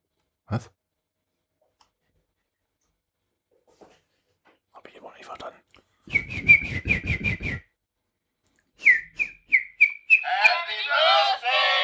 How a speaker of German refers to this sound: da musst du jetzt gerade ähm, ähm, deine rosa Powermaschine ja. bedienen. Okay. Was soll, was soll ich drücken? Euphorisches Feuerwerk?